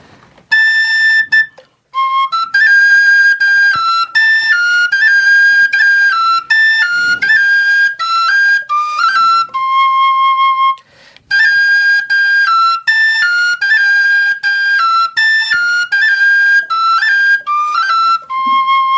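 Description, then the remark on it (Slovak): A Slovak folk whistle flute (píšťalka) played live: a lively solo melody, bright sustained notes stepping through a repeating phrase twice with a brief pause between, loud and clear with no voices. “V rukách drží píšťalku, takže bude to píšťala.”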